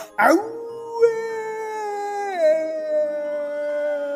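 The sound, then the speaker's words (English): A single long werewolf howl begins with a sharp rough onset, holds a steady, tonal pitch, then slides lower partway through and trails on. It is loud and alone, with no talking. “Howled the werewolf.”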